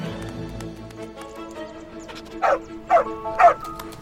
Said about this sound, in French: Alto sauta alors à terre et se mit à aboyer, comme pour indiquer une direction à sa maîtresse.